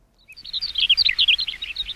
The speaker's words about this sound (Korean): 야 예쁜 새소리네요. 그렇죠? 네. 예. 일부의 노래 듣다 보면 이 예쁜 새소리가 섞여 있는 노래가 있을 거예요.